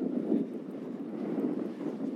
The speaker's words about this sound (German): ja, jetzt ist wieder windig hier.